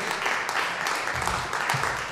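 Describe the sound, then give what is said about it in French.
Sustained audience applause for two guests, one a municipal councillor in Gatineau, a dense steady wash of many hands clapping at an even loudness throughout, with faint voices mixed in underneath. “J'aimerais qu'on les applaudisse dis encore une fois”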